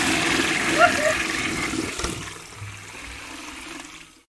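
A toilet flushes with a loud rush of water that swirls and gurgles, then tapers off into a fading drain over a few seconds.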